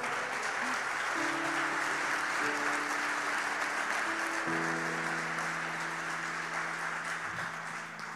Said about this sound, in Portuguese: Em nome de Jesus, se você crê nisso, aplauda ao Senhor.